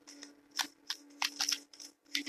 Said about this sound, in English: as i'm stop shuffling the cards for a second